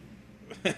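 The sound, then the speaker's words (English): A single quick sneeze bursts out, a soft breathy lead-in followed by a sharp, loud, hissing explosion that cuts off almost immediately. “Bless you.”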